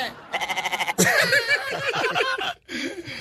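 A sheep bleats with a quavering, pulsing tremolo for about half a second, then loud overlapping laughter and chatter from several people take over.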